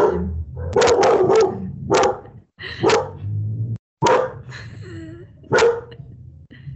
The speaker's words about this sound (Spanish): Un lomito enfadado con el América. Sí, ya escucharon, está muy enojada.